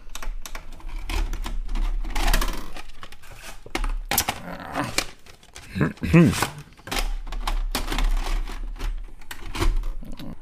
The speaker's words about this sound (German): Aber apropos Kassette, ich muss jetzt die Kassette wechseln, sonst können wir mit dem nächsten Film nicht anfangen.